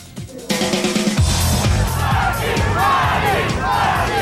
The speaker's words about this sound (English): good guys arrived to cheers. They're chanting The Rock's name.